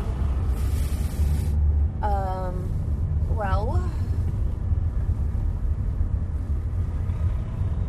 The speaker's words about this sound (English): There's a lot of trucks everywhere.